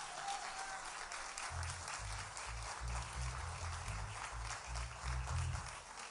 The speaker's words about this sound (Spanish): Dele el aplauso a Dios por estas cuatro vidas.